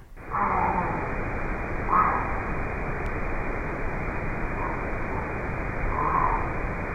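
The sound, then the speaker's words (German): A great blue heron (GBH) gives about four harsh, hoarse croaks, spaced unevenly a second or two apart, half-buried under a loud, steady rushing hiss of water-like noise. “der Great Build Heron GBH mit einem gewaltigen Stimmorgan noch dazu ist der Vogel der Woche”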